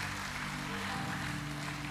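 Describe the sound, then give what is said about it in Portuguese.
An audience applauds in a dense, steady wash of clapping that holds its loudness throughout, with sustained low musical tones humming underneath that shift chord partway through. “Pode aplaudir, porque é esse Deus que nós servimos.”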